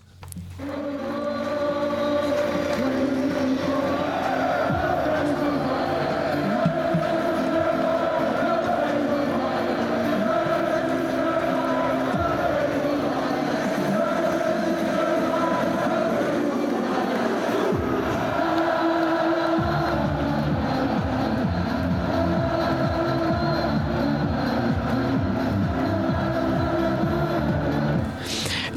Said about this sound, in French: Là, on a écouté la ferveur des Irlandais durant l'Euro 2016 pour commencer cette chronique sport